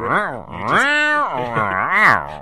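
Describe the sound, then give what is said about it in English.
Wordless gibberish vocal sounds from a person standing nose to nose with a partner, expressing inner tension: wavering, whiny tones that rise and fall in about three swells, almost like a cat's yowl, with no actual words. “But right, you just say you just make these sounds uh, of expressing the the tension that you're feeling inside, yeah.”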